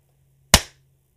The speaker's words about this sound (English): So, are you ready? Yeah. You can do this. How loud's it gonna be? It's gonna be a clap.